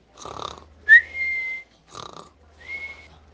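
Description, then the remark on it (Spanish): Two loud, exaggerated snores, each a rattling inhale followed by a high whistling exhale, with nothing else around them. It sounds like someone imitating with their voice the snoring of a wolf lying by a tree in a meadow. “Cuando llegó al prado encontró al lobo tumbado junto al árbol roncando”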